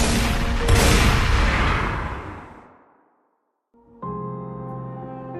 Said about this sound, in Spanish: Al regreso, buscó la escopeta matatigres de su hermano. Se la metió entre las piernas y se disparó los dos tiros.